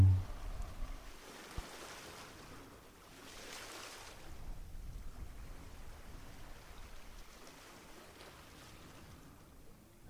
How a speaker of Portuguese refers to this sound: Sentimos como se estivéssemos numa praia à beira-mar, com uma água morna e as ondas do mar a molharem lentamente os nossos pés e as pernas.